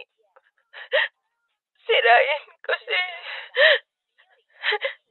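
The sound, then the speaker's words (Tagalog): A woman sobs and cries over the phone, her tearful words broken by short hiccuping catches of breath, with brief gasping bursts before and after the shaky speech. “umiiyak ka ba?”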